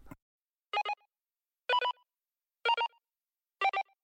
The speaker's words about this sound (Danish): og nu, øh, efter øh, en, øh, en lille afbrydelse af en brandalarm. Hvor er det mærkeligt at lave en brandalarm på en radiostation.